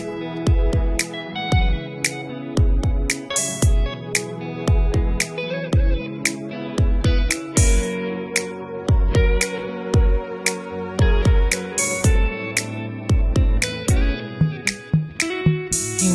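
A Brazilian MPB song plays at full volume, with a steady kick-drum beat, bright cymbal hits and layered band instruments carrying a sustained melody, no vocals yet.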